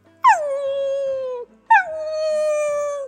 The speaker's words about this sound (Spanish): No cabía duda, era la voz del perro peludo que se estaba lamentando. Corrieron, corrieron, corrieron siguiendo el eco de su voz.